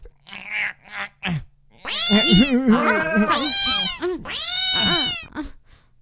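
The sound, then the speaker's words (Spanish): Kittens meow and caterwaul in loud, drawn-out, wavering wails that overlap one another, after a few short, quieter bursts at the start. “Me temo que me han timado o estos gatitos son incontrolables.”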